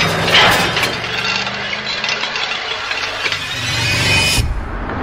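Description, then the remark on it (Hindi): A car engine runs as the vehicle drives, a continuous rumbling drone with a rough, rattly edge that swells briefly at the start and again near the end. No one speaks. “संजू तुरंत अपनी गाड़ी में वापस बैठकर कुछ दूर गया ही होगा कि एक आवाज आई”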